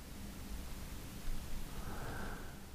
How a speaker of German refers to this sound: Das Rauschen des Meeres ist so angenehm beruhigend.